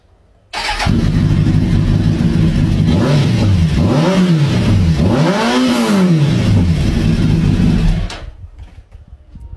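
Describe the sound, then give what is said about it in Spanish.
A car engine kicks on abruptly and revs loudly several times, pitch swooping up and down in rising and falling bursts before cutting off, with no voices. “El ruido que a usted le gusta es este.”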